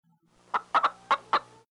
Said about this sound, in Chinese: 散养在院子里的斗鸡突然叫了一声。我在沙发上玩游戏。被这声鸡叫吓了一跳。